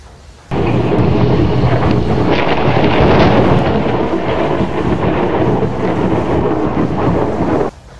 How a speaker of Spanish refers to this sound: En una noche, el cielo oscuro y bajo comenzó a lanzar relámpagos como llamas. Sin hacerse esperar, se largó un fuerte viento y luego una torrencial lluvia.